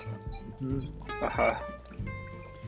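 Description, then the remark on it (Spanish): Water is poured into a floor drain trap to clear waste left in the trap, a short splashing gush that swells in the middle and then trickles off, with a voice talking over it. “Tengo que echarle agua para ah, Ya.”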